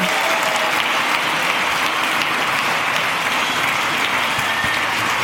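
Thunderous applause from a large crowd welcoming two guests from AWC, a dense, steady wash of clapping that holds at full volume for about five seconds without any voices breaking through.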